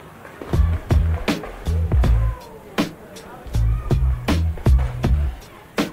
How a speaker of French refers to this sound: Préférant l'espace public au skatepark, les amateurs de glisse urbaine investissent la ville en détournant le mobilier urbain au gré de leur figure.